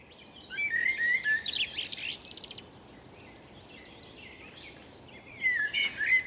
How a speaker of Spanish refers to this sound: Pues es un, un pájaro. Sí, es un pájaro que en inglés se llama blackbird eh, en español no estoy seguro cómo se llama, no sé si es zorzal o si es eh, tordo.